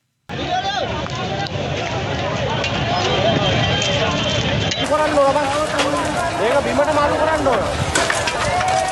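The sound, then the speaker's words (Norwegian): A politician's house, set on fire during unrest in Sri Lanka, crackles and pops steadily and loudly throughout, with a dense roar of flames and indistinct voices of a crowd in the background. “Og den knitringen vi hører her, det er eh, lyden av et eh, hus som brenner.”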